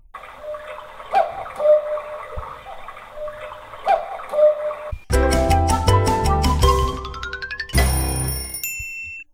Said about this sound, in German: Wenn du den Einspieler queuen würdest, spielen wir eine Runde Kuckuckskind.